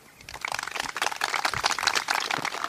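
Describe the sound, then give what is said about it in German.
Audience applause from a live show's audience in Wittstock: many hands clapping in a dense, steady patter that swells in from silence and holds at a lively level for a few seconds, with no talking over it. “Vielleicht kriegen wir einen kleinen Applaus vom Publikum.”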